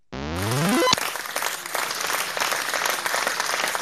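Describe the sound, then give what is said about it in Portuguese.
A quick rising electronic tone sweeps upward, then a crowd's sustained applause takes over, dense steady clapping at a fairly loud, even level until the end, with no talking. “Uma salva de palmas”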